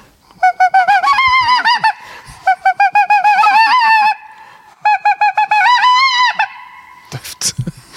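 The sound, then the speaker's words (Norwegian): A flock of geese honks loudly and repeatedly in dense overlapping bursts, with a brief pause between volleys, ending in a few rustling, flapping sounds. “hvis det kommer en haug med fugl med de lydene over 2000 står over, så oi, oi, oi.”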